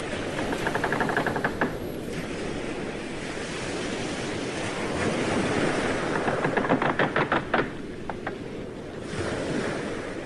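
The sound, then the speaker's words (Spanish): Steady wash of sea waves and wind with soft creaks and knocks of a boat rocking gently as it sails toward islands in a fresh breeze under bright sun, brief rhythmic clicking bursts rising over the continuous surf noise; no talking. “Siente la brisa fresca y escucha lo suave que se mueve el barco.”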